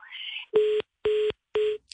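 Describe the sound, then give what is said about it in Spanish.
A mobile phone call cutting out: a brief garbled crackle of line noise, then three loud, evenly spaced electronic beeps like a disconnect tone, with no one talking. “mientras la conectamos nuevamente porque la veo en la imagen, pero creo que se le cortó en el celular.”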